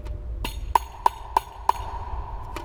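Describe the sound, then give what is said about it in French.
Sharp, dry strikes of both index fingers on a tambourine's skin, blocking the sound to give a high 'tac': about five evenly spaced taps, each with a brief bright ring, played alone over a faint low hum. “poser les deux index à chaque fois sur la peau pour pouvoir bloquer un son et avoir un son aigu.”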